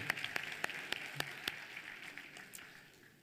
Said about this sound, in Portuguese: É, palmas para